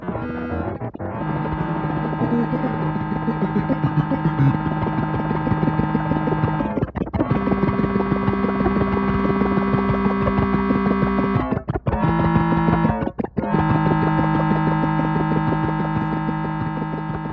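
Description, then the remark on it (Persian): A loud, dense orchestral opening of Alireza Mashayekhi's Symphony No. 3: sustained, droning chords with a harsh edge, broken by a few abrupt, brief cutoffs before the massed sound resumes. No voices. “چیزی که شنیدین شروع سمفونی سوم علیرضا مشایخی بود.”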